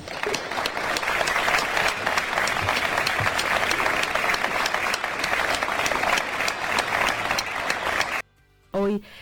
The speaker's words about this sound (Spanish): Por ello, un aplauso para ellos.